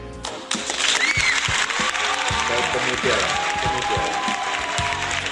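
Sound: applause welcoming a guest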